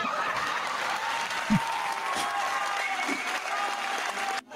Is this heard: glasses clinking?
no